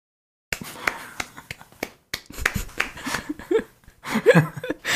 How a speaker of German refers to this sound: Applaus.